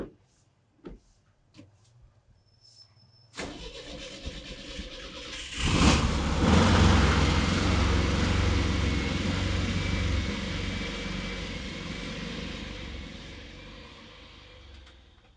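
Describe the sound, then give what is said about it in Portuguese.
A few sharp clicks and clunks, then a Kombi van engine cranks, catches with a loud roaring rev, and settles into a steady, rumbling idle. “A partida. Que carro é esse? Kombi. Não é carro, é Kombi.”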